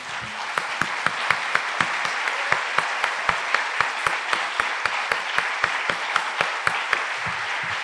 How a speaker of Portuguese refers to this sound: Mas vamos aplaudir a Jesus, sim. Vamos aplaudir agora. Aplaudir uma salva de palmas para Jesus.